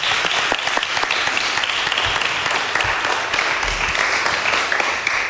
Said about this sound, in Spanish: Y pues este aplauso de todos los que estamos aquí. Venga. Muchas gracias.